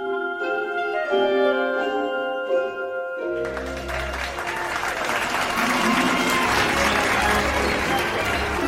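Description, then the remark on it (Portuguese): A few seconds of tonal, musical sound give way to a large crowd bursting into loud, sustained applause that fills the room and continues to the end. “salão inteiro prorrompeu em aplausos quando o chapéu acabou de cantar.”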